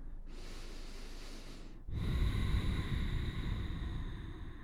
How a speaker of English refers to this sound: Try to smooth it out. You can even get a little noisy with it if you want. You can constrict the back of your throat, making that subtle sound of H on the exhale.